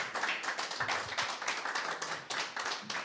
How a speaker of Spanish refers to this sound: Un fuerte aplauso para nuestro Dios y vamos a orar.